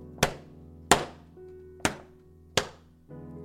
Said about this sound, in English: my home studio into a room with poor acoustics so you can hear the echo of this book off my head. I need some acoustic foam in here. I need some sound panels. That that's a big reverb.